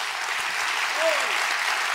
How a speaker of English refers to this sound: Clap your hands for that right now. Clap your hands for that right now.